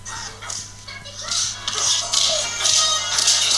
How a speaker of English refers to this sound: Oh yes. It sounds like a whip. Yeah, it does sound kind of whippish. Yeah. Oh, that's good. it's just a compilation of punches, because it's it's a very specific Indiana Jones punch sound effect that yeah. you hear throughout all of them.